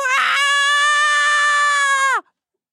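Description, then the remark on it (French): A voice imitates someone crying with one loud, high-pitched wail. It starts with a breathy burst, holds steady for about two seconds, then drops off sharply in pitch. “Et je te jure, il met un silence, il nous regarde, et il pleure Il fait”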